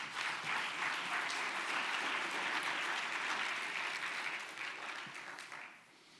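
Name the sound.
audience applause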